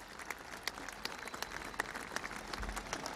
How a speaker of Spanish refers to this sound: Esos aplausos son para él. Son para él, son todos para él.